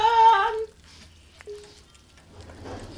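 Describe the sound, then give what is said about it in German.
A wood fire crackles softly in a stove inside a house, a low hiss broken by a single sharp pop, after a brief high tonal squeal at the start. “Ja, das Lager, das Feuer im Ofen ähm, brennt ein bisschen.”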